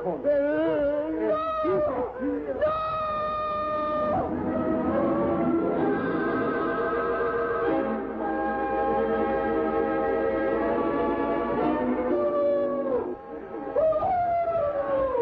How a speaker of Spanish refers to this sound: Los gritos de terror de la hermosa egipcia Nila resonaban angustiosos en las ruinas del templo de Dendur.